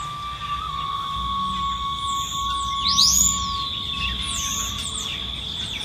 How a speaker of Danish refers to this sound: Så er det morgen. Tidlig morgen her hvor jeg bor. Ikke så langt væk fra, eller faktisk lige ved kanten af Lady National Park. Jeg nyder simpelthen bare det her baggrundslydtapet af fugle